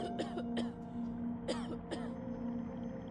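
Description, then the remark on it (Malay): A sick woman coughs in a series of harsh, hacking bursts, two early and then a cluster of three, loud over a steady low background hum, with no talking. “Batuknya teruk sampai berminggu-minggu.”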